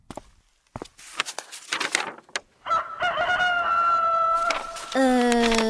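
A few short clucks and scratchy sounds lead into a village rooster's loud, drawn-out crow, a second crow following right after, both strained and harmonic-rich with a falling tail.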